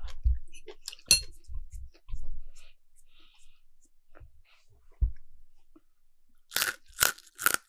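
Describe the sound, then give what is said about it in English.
Crunchy eating sounds for ASMR: scattered soft mouth clicks and smacks, then three loud, sharp crunching bites in quick succession near the end. “we need to hear your ASMR”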